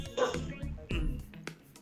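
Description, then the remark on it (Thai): A household dog barks at home, three or so sharp, fairly loud barks spaced unevenly across a couple of seconds, with a faint room hum between them. “ฮองฮองไม่กี่ไม่เกี่ยวอ่าฮองฮองไม่เกี่ยวอันนั้นอันนั้นสุนัขที่บ้านอ่า”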